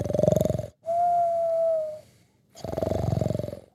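A man, a professor who has fallen asleep, snores loudly: two rattling, buzzy inhales, separated by a long whistling exhale, in a comic rhythmic pattern with no talking.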